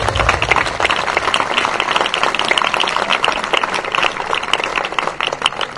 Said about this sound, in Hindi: मैं चाहता हूं कि आप उनके लिए भरपूर तालियां बजाएं